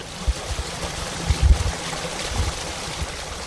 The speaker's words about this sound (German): Am Rande des weiträumigen Gartens von Ferdinand Junius fließt der Mühlbach.